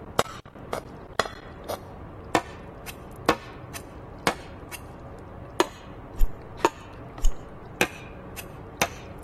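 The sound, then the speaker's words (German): In a video game, a can is set down again and again on different surfaces, such as a wooden table, a carpet and a toilet cistern, making a series of sharp taps, clinks and duller knocks at an uneven pace, with no talking. “Ja, also quasi je nachdem, ob du die Dose aufs, auf den Holztisch, auf den Teppich, ja. äh, auf die Klospülung stellst, macht es ein anderes Geräusch.”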